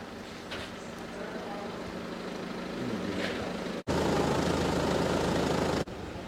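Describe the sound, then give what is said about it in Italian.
A car engine hums steadily from inside a moving vehicle in Castelluccio Superiore, with the town's mayor riding in the car, and constant road rumble that swells into a louder rushing stretch for about two seconds before settling back. “E allora, noi siamo, come detto, siamo a Castelluccio Superiore e abbiamo l'onore di ospitare in macchina il sindaco Giovanni Ruggiero.”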